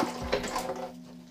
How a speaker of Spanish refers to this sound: la temperatura justa para el mate, así que le tengo que echar un poquito de agua fría para no quemar la hierba.